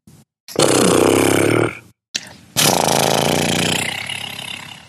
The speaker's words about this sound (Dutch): Eh, dan kun je bijvoorbeeld uh, lip trillen.